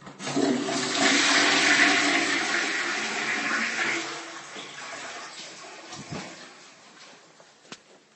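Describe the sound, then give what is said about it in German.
A toilet flushes with a loud, broad rush of water that gradually fades into gurgling refill, then a faint sharp click near the end. No one speaks. “Entschuldige bitte, dieser äh, akustische Witz war mir eben eingefallen und ich konnte jetzt nicht darauf verzichten zu machen.”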